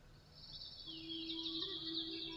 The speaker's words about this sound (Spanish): Imagina que incluso puedes oír pájaros,